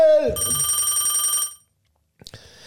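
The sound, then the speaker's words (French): A telephone bell rings loudly in one sustained trilling burst of about a second, then cuts off; after a short silence, a voice begins speaking. “Hey, on s'excuse, mais le téléphone, n'arrête pas de sonner pour le spécial On va aller voir c'est qui qui est au bout du fil.”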